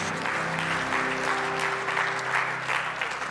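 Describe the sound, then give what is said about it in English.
An audience at a morning worship service claps for Jesus in dense, steady applause for several seconds, with a faint sustained musical tone humming low underneath. “If you love Jesus, let me hear your hands this morning.”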